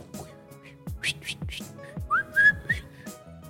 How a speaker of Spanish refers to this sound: no sabés silbar, ¿no? No.